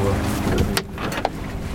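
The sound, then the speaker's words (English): A small single-engine boat's engine drones steadily on a rough sea as the wind speed increases, a continuous low rumble mixed with rushing wind and water noise, with a couple of brief sharper knocks along the way. “rough sea an environment that was not only too noisy to record in, it was actually too dangerous for us to be out in in our small single engine boat.”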